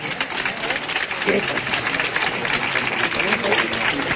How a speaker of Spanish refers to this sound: y con esta gran ovación.